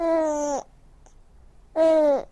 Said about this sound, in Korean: 생후 100일이 채 안 된 아기의 옹알이.